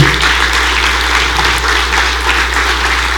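An audience at a morning church service applauds God steadily, a dense, even wash of many hands clapping at once with no voices standing out, holding a constant loudness throughout.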